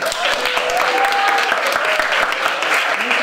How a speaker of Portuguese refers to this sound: Então, pessoal, uma salva de palmas à Gangue do Uno.